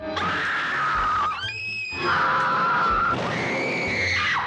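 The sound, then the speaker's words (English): A woman in a horror film screeches in loud, piercing bursts, several long sustained shrieks in a row with a brief wavering break between them, intense with no talking. “The hysterical girl is often most remembered for her continual screeching.”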